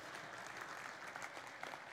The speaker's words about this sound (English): You can clap. Uh, that's like a proud dad moment.